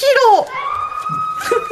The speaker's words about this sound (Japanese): 絶叫の SE って連発で聞くと怖くないの 一発目ちょっと怖いかもと思ったそうそうそう あ怖くなくなっていく